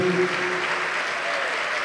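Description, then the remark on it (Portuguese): A church audience applauds steadily as people are called to the front, a dense, even wash of clapping that holds at a constant level for about two seconds, with a faint tonal hum underneath at the start. “Vem, filho pródigo, vem, filha pródiga, isso, vem, vem, vamos aplaudir, vem.”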